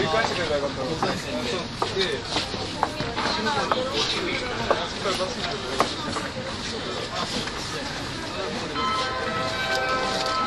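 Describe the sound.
An E231 series commuter train on the Yamanote Line outer loop in Tokyo, Japan, gives a steady rumble and clatter dotted with sharp clicks. A voice speaks a station announcement over the continuous mechanical noise, saying the doors on platform 1 are closing.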